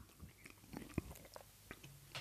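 Someone chews food, with soft irregular crunches and one sharper bite near the middle. It is quiet, and no one talks.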